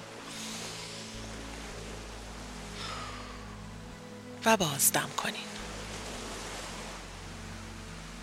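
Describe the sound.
A steady, soft wash of sea waves rolls on throughout, with faint low sustained tones underneath and a brief spoken phrase from a calm voice in the middle, during a guided relaxation for sleep.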